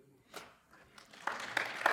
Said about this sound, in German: Guck mal, da gibt es sogar Applaus für.